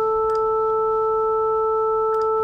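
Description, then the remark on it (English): A steady electronic tone built from its first three harmonics holds evenly throughout, buzzy and bright, with faint clicks near the start and end and no voices. “And if you add the third, then you get this”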